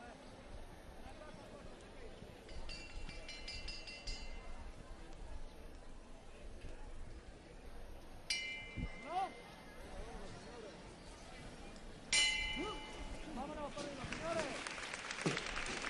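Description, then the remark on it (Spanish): A bell rings out twice over a murmuring outdoor crowd, signalling the lifting of a Buena Muerte Holy Week procession float (trono); each clear strike lingers briefly before applause swells near the end. “Esa levantada tan característica también de estos tronos de la buena muerte con su campana.”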